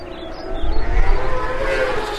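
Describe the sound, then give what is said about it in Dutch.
A steady, distant engine drone of hundreds of motorcycles (Harleys, Kawasakis, Suzukis, Hondas, Yamahas) heading to the circuit in Assen for the annual TT in late June, heard from far across the heath, with a low rumble and a faint whining tone, swelling slightly in the middle. “Totdat ergens eind juni van ver over de heide en ook uit alle andere richtingen ineens gebrom klinkt.”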